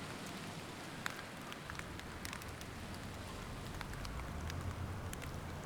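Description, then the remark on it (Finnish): Steady light rain patters outdoors, with scattered soft drop ticks over a low, continuous wash of background noise that suggests gentle wind; no voices. “Ehkä tuulee ja vähän tihkuttaa, mutta puun oksien alla ei kastu.”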